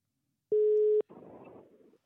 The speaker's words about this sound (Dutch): Ik, ik druk de telefoon in. Hij gaat over. Hij gaat over.